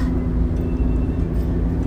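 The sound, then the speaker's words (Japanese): A steady engine and road rumble from inside a moving car driving in heavy traffic and merging lanes, with cars backed up behind, a low constant hum and no voices, holding an even level throughout. “もう後ろに車も詰まってるしさもう本当に参ったな毎回ねこうやって音声を収録してて毎回ここで詰まるのよドキドキなのよ”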